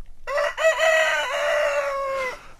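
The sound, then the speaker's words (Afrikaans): A rooster crows once at dawn, loud, in a long drawn-out cock-a-doodle-doo that rises, holds, then trails off, with no other sounds around it. “Dit is so vroeg dat die voëls pas begin sing het om die nuwe dag aan te kondig.”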